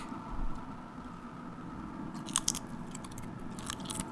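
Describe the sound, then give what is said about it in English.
Crunchy biting and chewing right into the microphone, with a few sharp crackling crunches standing out over a steady, muffled munching. No one speaks. “When it comes to eating on mic.”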